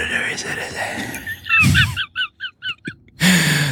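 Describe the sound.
Someone does a chicken impression: a quick run of about six sharp, high clucks, fairly loud, with murmuring voices and room noise before and after.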